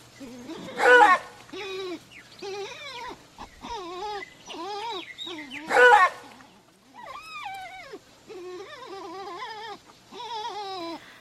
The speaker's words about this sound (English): But we have a real lobison, the Aguaraguazu, which is like a big wild dog. You can listen to his barking and his whining right now.